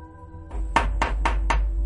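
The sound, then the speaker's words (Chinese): Four quick, evenly spaced knocks on an old, flimsy door, sharp and loud, rapping in a hurried steady rhythm over a low continuous rumble, with no voices. “一声声急促的敲门声响起来，而且越敲越快，越敲越快。”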